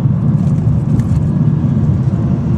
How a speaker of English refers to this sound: Police officer on a motorcycle beside me.